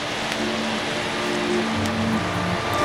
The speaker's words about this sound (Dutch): Ja, ik hoor een beetje water.